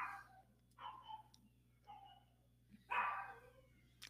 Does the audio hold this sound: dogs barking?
yes